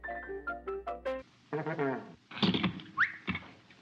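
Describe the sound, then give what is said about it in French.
A telephone rings in a quick series of four or five bright, tonal electronic bursts, then stops as someone begins talking. “You know, I'd be lost without a telephone.”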